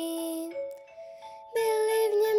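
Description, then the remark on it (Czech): Small bells ring out in a bright, sustained shimmer, their tones lingering and overlapping, then a fuller, louder burst of chiming follows partway through. No one speaks. “Zavírám oříšek pohádkový, slyšte už zvonky zvoní”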